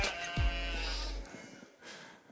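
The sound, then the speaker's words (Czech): A single drawn-out, wavering bleat voiced by a person imitating a sheep, fairly loud, lasting about a second before trailing off into quiet background noise. “Oh, I like your sheep. I like you sheep. Bé.”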